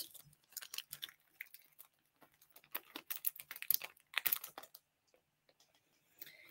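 The plastic package of a LoFric Origo catheter is pulled open by its front tab, with bursts of crisp crinkling and crackling rustles that come in uneven clusters, then pause near the end. No one speaks.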